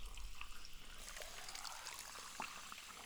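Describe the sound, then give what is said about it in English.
A steady stream of soda pours from a tap, a continuous liquid hiss and trickle with small fizzy splashes, fairly loud, with no talking. “Well, that was kind of unimpressive, but it was, Soda okay. Stream. Yep, is on tap.”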